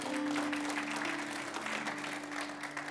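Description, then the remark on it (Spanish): An audience applauds the Lord steadily, many hands clapping in a dense, sustained wash that fills the room at a fairly loud level, with a low steady hum underneath. “Denle un aplauso al Señor porque Él es bueno.”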